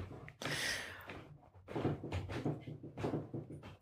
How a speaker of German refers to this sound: Das Rappeln hier ist gerade mein Hund, der den, gegen den Stuhl donnert hier.